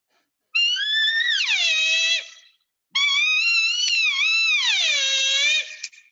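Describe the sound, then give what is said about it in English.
Two long, wavering, whiny nasal calls blown on an external reed elk call, imitating a cow elk's estrus whine. Each rises and then slides down in pitch, loud, with a short gap between. “it's, it's it's not a perfect cow call. I mean, I can you know I can sit here and make perfect mews all day long.”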